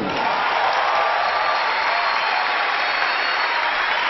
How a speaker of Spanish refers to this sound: Quiero pedir un aplauso